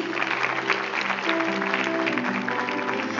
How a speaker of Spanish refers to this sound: Ay, pero un aplauso que usted está aquí.